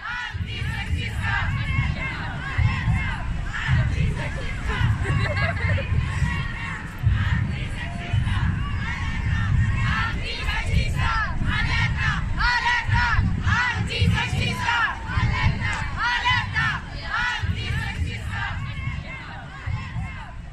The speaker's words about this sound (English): Imagine this space. It's large and it's full of people. In fact, it's packed. It's warm and yours is one body breathing among others.